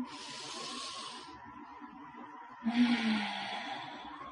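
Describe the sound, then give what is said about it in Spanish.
A slow, deep breath drawn in through the nose during a guided breathing exercise, a short pause, then a long, airy exhale, fairly soft, with no talking. “Si sí, esa exhalación, vuelvan a hacer una respiración profunda, profunda, profunda.”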